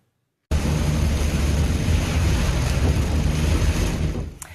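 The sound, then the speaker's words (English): Hail pelts a car driving around Walnut Creek in the San Francisco Bay Area on an afternoon of heavy rain, in a dense, constant clatter over a deep road-and-engine rumble, starting abruptly and running steadily for about four seconds before dropping off; no one speaks. “Our photographer got caught up in some hail while driving around in Walnut Creek this afternoon.”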